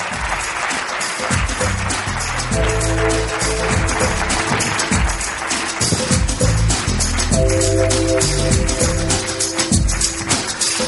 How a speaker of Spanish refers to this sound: Muchas gracias, un fuerte aplauso, lo ha hecho usted muy bien. Muchas gracias.